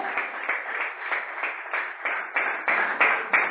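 A church audience applauds God for several seconds, the clapping dense and sustained with a steady rhythmic pulse that swells slightly louder toward the end.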